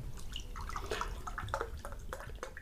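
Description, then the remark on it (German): Water trickles and splashes in a steady stream, with scattered dripping tones, as water is poured into a glass; no talking. “Vielen Dank, ich bekomme Wasser.”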